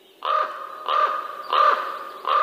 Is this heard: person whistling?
no